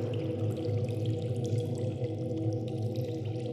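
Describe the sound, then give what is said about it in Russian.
Water pours steadily and continuously for a few seconds, a full rushing sound with a deep gurgling undertone and no voices. “Давайте сфокусируемся на воде. Посмотрим на нее под разными углами. Это вода.”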